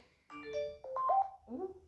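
phone notification sound

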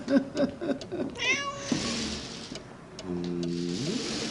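cat meowing

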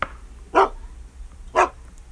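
dog barking

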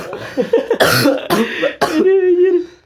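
coughing

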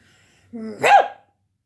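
dog barking

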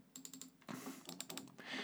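computer mouse clicking

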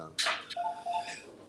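sneeze

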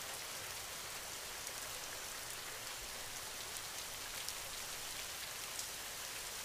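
rain falling

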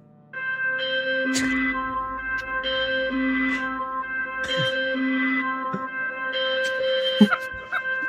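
phone call ringing tone

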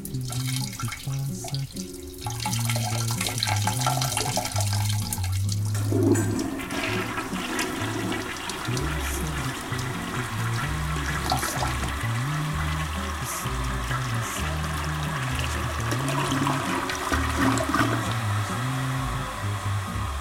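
toilet flushing

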